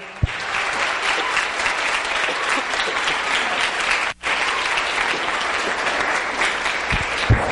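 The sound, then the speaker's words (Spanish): An audience breaks into loud, sustained applause for Jesus Christ, dense clapping that stays steady for several seconds with one very brief drop partway through, and no voices standing out. “Si va a aplaudirlo, apláudalo fuerte, por favor.”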